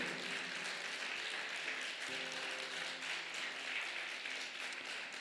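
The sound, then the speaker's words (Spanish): A crowd breaks into sustained applause for God on Friend's Day, many hands clapping in a dense, steady roar for several seconds, with a faint held tone humming underneath. “¿Se animaría a darle un aplauso a Dios?”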